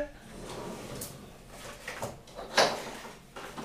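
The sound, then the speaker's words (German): A kitchen drawer slides open with a sharp clack near the middle, followed by light rattling and shuffling of objects inside as someone looks for a pepper blend, moderately loud with faint background noise. “weiß nicht, ist hier in der Schublade, warte.”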